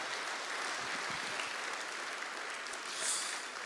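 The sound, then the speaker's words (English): A crowd gives another round of applause for two guests, steadily, a dense wash of many hands clapping at an even level, with a brief swell near the end and no voices. “Why don't we give Ange and Joe another round of applause?”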